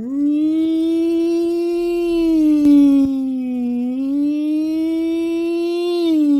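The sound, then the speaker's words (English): An old-fashioned ambulance pulling up gives a loud, continuous siren wail that holds a fairly steady pitch, dips slightly midway, then climbs back up over about six seconds, with no talking. “yeah, and there's a, well, a uh, an old fashioned um, ambulance that pulls up,”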